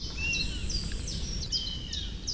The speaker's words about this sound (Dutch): Ja maar, ja, maar dat zijn roofvogels, hè. Dat zijn moeilijke geluiden, hoor. Die moet je erbij zien, hè. Zeker als het eh, om, om, takkelingen gaat. Hè. Dus dat zijn dan jonge vogels eigenlijk die, die bijna uit gaan vliegen.